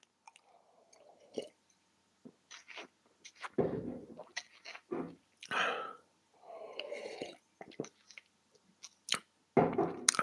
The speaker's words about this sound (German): ich muss mal einen Schluck schnell aus meiner Tasse trinken. Äh, ich muss schnell einen Schluck Wasser trinken, mein Hals ist so trocken.